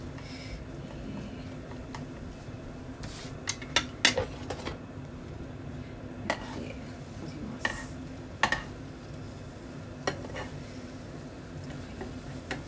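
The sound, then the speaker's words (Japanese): An egg cooks in a pan with a steady low sizzle as its edges begin to set and it is shaped, while a utensil scrapes and taps against the pan in a few sharp, scattered clicks. No one speaks. “卵ちょっと周りが固まってきたようなところでね形にして。”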